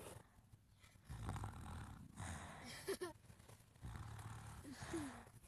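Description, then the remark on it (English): A sleeping child snores in slow, heavy rasping breaths, several cycles with brief pauses between, with otherwise quiet surroundings. “Um, this kid's sleeping.”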